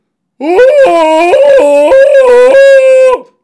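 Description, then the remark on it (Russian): A woman playing a prostitute in a film scene lets out a loud, drawn-out howl that wavers in pitch and breaks briefly a few times, lasting about three seconds with no talking around it. “Проститутка яростно соблазняет подменного Бобринского, гладит его ногой, забирается сверху, а потом, увидев, что это подмена, талантливо воет.”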